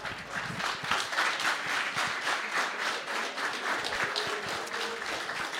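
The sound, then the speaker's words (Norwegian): An audience applauds steadily for several seconds to welcome guests onto a stage, a dense, even wash of many hands clapping at once, sustained without pause, with no voices standing out. “kjære publikum, ønsk våre venner i Jegerpodden hjertelig velkommen til scenen”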